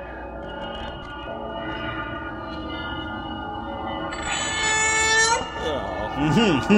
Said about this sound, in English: The theme from Texas Chainsaw Massacre is disturbing.